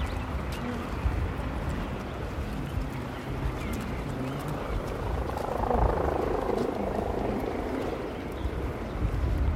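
A yellow ADAC helicopter drones steadily in the sky, its rotor chop rumbling continuously and swelling slightly louder midway as it hovers and circles, watching something, with faint background sounds beneath.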